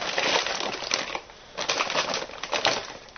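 Homemade dog food being prepared up close: steady crunching, squishing and rustling from mixing, with a brief lull midway before the scraping resumes. No one speaks.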